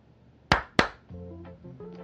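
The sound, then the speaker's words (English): Two sharp hand claps in quick succession, crisp and loud, made to activate a music bed, followed by a soft sustained musical tone with steady pitched notes fading in underneath. “Just had to, to clap to activate the music bed underneath this.”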